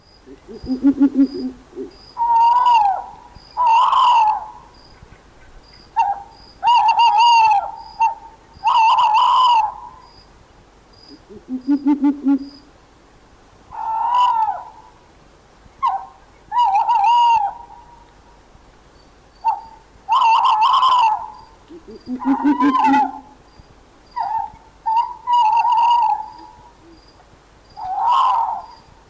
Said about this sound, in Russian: Вот чтобы слушатель все-таки убедился, что это именно тот звук, который он слышит у себя там в ближнем Подмосковье, в Истринском районе, предлагаю еще раз послушать. Давайте послушаем филина.